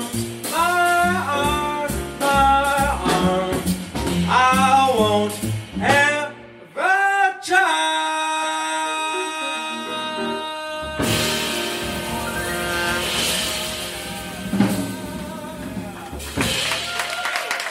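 A jazz vocal song nearing its close: a singer's expressive phrases over band accompaniment build to a long held final note, then audience applause and cheering fill the rest.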